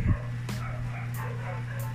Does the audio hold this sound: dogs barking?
yes